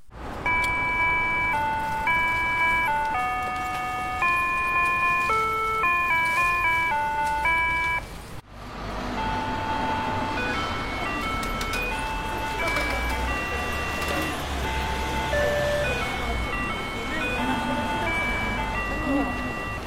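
A Japanese musical pedestrian crossing signal chimes a simple melody of bright electronic tones, note after note. The tune is a Japanese children's song. It plays over steady street noise and traffic rumble, with a brief cut partway through before the tune continues.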